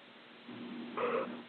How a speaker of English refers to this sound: Oh. The yawn is out. It's been a long day. It's been a long day. Oh my god, I'm so yawny.